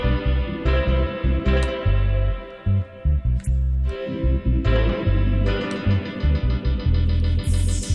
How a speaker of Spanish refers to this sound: Y ahora viene. Y ahora está el bajo y el teclado, le ponemos efectos a los teclados.